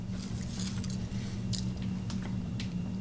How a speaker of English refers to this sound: This the potato definitely shines through in this. So let me take it, take another bite. Yeah, you get the spice, you get the potato, you get a bit of crunch.